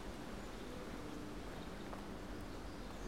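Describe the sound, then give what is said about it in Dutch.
Steady crunching and rustling of footsteps through dry fallen leaves on the ground, walking off a winding path at den Alerdink, a continuous soft shuffle with no voices, fairly quiet. “En je zult mijn voetstappen op de ritselende, de ritselende voetstappen op de blaadjes op de grond horen.”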